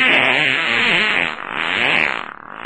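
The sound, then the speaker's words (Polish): A long, loud, buzzy fart sound effect rumbles and sputters for nearly three seconds, forceful, with a wavering raspy texture and no voices. “Wyleciał pierd.”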